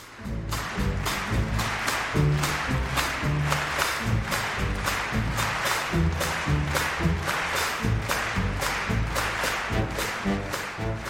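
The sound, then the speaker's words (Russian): A concert audience, including Prince Philip, Duke of Edinburgh, claps in a steady, unified rhythm along with a jazz orchestra on 23 December 2000, the sharp beats riding over bass and harmony that carry on throughout, loud and continuous with no talking. “Едва оркестр заиграл первые такты этой композиции, зал безошибочно подхватил знакомый ритм.”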